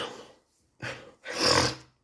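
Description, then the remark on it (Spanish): A sneeze: a couple of short, breathy huffs lead into a loud, harsh, explosive burst of air lasting about half a second, with no talking around it. “Es que tengo un estornudo en la nariz, perdón.”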